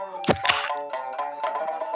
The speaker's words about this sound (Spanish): es el sonido de la cerveza que me acabo de abrir y notaréis en mí un tono de voz apacible, sereno.